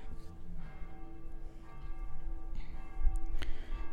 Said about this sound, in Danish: Man kan høre kirkeklokkerne, fordi at Klokken den er lige slået 6. Jeg er på Amager i København,